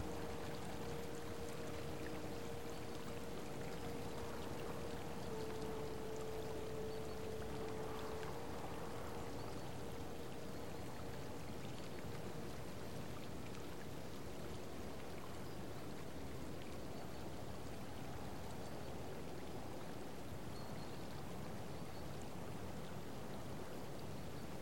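Water from a hot spring flows and splashes in a steady, unbroken rush, with a faint sustained hum in the first half and no voices.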